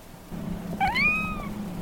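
A single drawn-out cat meow, rising and then falling in pitch, clear over a low steady hum, lasting under a second with no talking.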